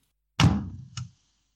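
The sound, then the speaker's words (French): A wooden sideboard cupboard door slams shut with a loud thud, followed a split second later by a smaller rattling knock as it settles, then silence. “Votre porte de buffet a un claquement prodigieux que vous allez nous faire écouter maintenant.”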